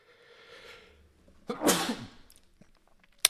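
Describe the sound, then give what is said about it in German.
A single sharp, explosive sneeze bursts out after a quiet inhale, trailing off quickly, followed by a brief click and silence. “Entschuldigt bitte, ich glaube, ich muss niesen.”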